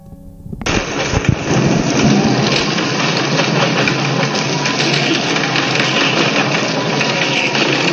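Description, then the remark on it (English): A sudden roar of heavy, driving hurricane rain and wind bursts in and holds steady and loud, with deep rumbling thunder booming beneath it in the first seconds. “In Key Largo, the central character is the hurricane itself.”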